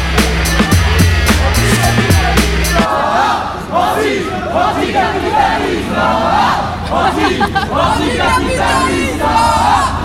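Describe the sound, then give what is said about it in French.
A street protest crowd blocking the street, moving away from the Forum des Halles into the small streets of the Marais, shouting loudly, many voices yelling and chanting together in overlapping bursts. It opens with a few seconds of pounding, rhythmic low drumming before the crowd noise takes over. “C'est reparti, ça bloque la rue. Un peu plus d'ambiance et de monde.”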